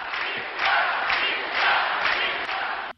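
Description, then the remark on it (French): A rally crowd of about 100,000 people from Paris and the provinces roars and cheers continuously for Valéry Giscard d'Estaing, a dense wall of voices that swells in waves every half second or so before cutting off abruptly. “Un public jeune et populaire qui a réservé à Valérie Giscard d'Estaing un accueil triomphal et qui n'a cessé de lui manifester son enthousiasme.”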